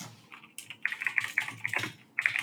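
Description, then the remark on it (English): Rapid, uneven clacking of keys on a loud computer keyboard, with short bursts of keystrokes separated by brief pauses. “I hate your loud ass yeah, keyboard so much.”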